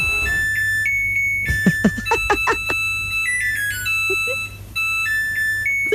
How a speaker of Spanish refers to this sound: es la canción de la lavadora, de mi lavadora. No. termino de lavar, toca esto.